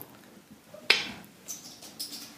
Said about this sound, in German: Und, und die graue Katze zerkratzt die Tapete.